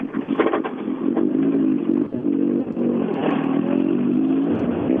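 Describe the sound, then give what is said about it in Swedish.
A racing car engine roars steadily for about five seconds as the car drives past, its loud buzzing drone rising and falling in pitch as it revs, with some rattling clatter mixed in and no voices. “Men Christian Johansson alltså ett bakhjul fattigare och eh, vi vet, kör han till tillbaka med tre hjul på bilen, då blir man utesluten ur tävlingen.”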